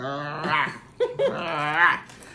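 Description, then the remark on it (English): A person growls in a voice imitating an angry animal, a rough, drawn-out snarl broken by a short pause, fairly loud, lasting a couple of seconds. “So we've been watching Golden Girls with Dorothy talks about her ex husband and like the first couple episodes, she growls.”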